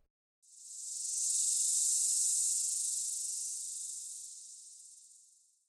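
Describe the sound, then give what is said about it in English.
A chorus of cicadas in the woods erupts suddenly into a loud, steady, high-pitched buzz, holding in unison for several seconds before slowly fading toward the end. No voices are present. “A sharp burst of cicadas, sounding off in unison.”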